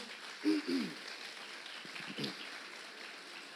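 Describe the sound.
An audience claps steadily for the Lord and their nation, a dense crackle of many hands, with a few brief voices rising over the applause.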